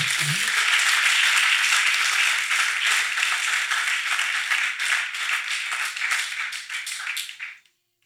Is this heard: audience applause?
yes